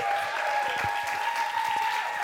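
An audience claps steadily in a dense, continuous burst of applause that holds at an even level throughout, with a faint sustained tone running underneath.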